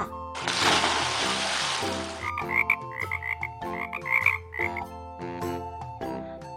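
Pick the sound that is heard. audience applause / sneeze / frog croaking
frog croaking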